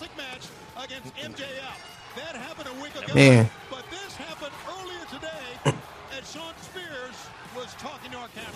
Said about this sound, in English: But we're going to take it back a week ago as Shawn Spears came out and caused. Ooh, jeez. Chair shots to the head.